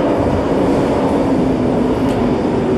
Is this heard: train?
yes